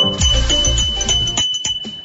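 A doorbell chime used for Laura Neves' Minas Gerais handicraft (artesanato mineiro) business rings out loud, a run of pitched tones stepping downward, followed by a few short, sharp strikes as it fades. No one speaks.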